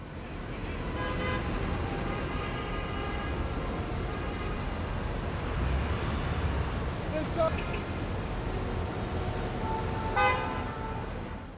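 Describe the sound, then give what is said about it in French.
Busy city street traffic rumbles steadily, with several car horns honking at different moments, some sustained and others short, over a dense wash of engine noise and indistinct voices. “Euh, oui, ça fait du bien d'entendre un peu des bruits de la ville.”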